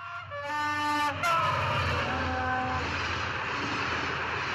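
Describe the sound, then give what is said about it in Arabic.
A train bound for Aswan, Egypt, starts pulling away on the way back from Cairo, with a loud, steady rumble, while a whining engine tone rises and shifts in pitch during the first second. No one speaks. “وأول ما القطر اتحرك وصوت الميكروفون قال القطار متوجه إلى أسوان”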